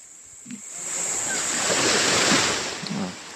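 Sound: ocean waves surf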